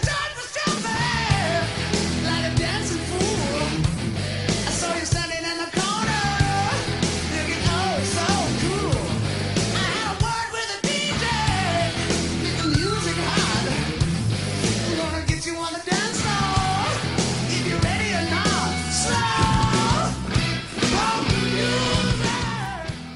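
A loud, driving hard rock track with distorted guitars, steady drums and a wailing male vocal, playing continuously at full, dense volume with brief breaks in the groove.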